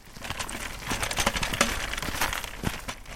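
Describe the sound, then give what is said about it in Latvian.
A push walker used by a nine-year-old girl rolls along on the way to her home in Jaunpiebalga, its wheels making a steady crunchy rattle and scrape with irregular clicks and clatters, fairly loud and continuous, with no one speaking. “Skaņas, kuras jūs dzirdat fonā, rada stumjamais staiglis.”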